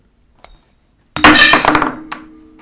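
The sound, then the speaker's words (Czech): A spun dollar coin drops with a faint tap, then lands hard on a glass plate with a loud, ringing glassy clink that rattles briefly and decays, followed by one lighter clink. No one speaks. “Kam to spadlo? To byla hrozná rána. Hele, je tam Bolt Eagle. To spadlo do nějaký skleničky.”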